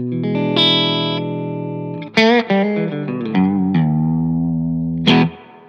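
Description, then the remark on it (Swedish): Distorted electric guitar plays sustained chords and a short run of picked notes, loud and gritty with a ringing tail, no talking over it. “Däremot så distar, när man demar det eller, eh, eller andra typer av effekter”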